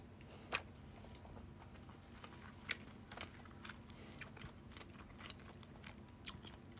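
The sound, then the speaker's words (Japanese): Wet chewing and mouth sounds with a few sharper crunchy bites as someone eats a very spicy curry, continuing steadily for several seconds with no talking. “あれ収録的に咀嚼音がしますんですみません。”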